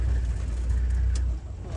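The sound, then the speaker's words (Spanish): A steady low engine rumble from inside a moving car that is shaking a lot, continuous and fairly loud, with a brief hiss of noise partway through and a slight drop in level near the end, on a track where elephants and hippos pass, while people watch an elephant in its natural habitat. “Ay, ay, se mueve mucho el coche.”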